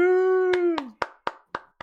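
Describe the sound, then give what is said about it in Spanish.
A held, voice-like note that dips at its end, overlapped by six sharp, evenly spaced hand claps in a quick steady rhythm, with the last claps ringing out alone. “Y recuerden que mientras no dejen de aplaudir, no dejamos de jugar.”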